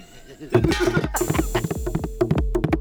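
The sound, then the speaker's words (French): A bomba hand drum, held between the player's legs, is played in a quick, uneven rhythm that alternates caresses and strikes. Its deep booming strikes mix with sharper slaps that ring with a slightly metallic edge, fairly loud, with no voices. “Des sons métalliques et profonds en jaillissent.”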